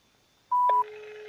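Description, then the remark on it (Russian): A loud telephone keypad tone beeps once while dialing a phone number at the administration of Biysk, then gives way to a steady, lower electronic tone that holds to the end. No one speaks. “Так, вот какой-то телефон на администрации Бийска”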